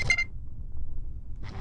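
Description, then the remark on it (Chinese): A Ricoh camera's autofocus beep: a short, high-pitched double chirp at the start, followed by quiet low hum and a brief soft noise burst at the very end. “然后它的对焦就是这个声音”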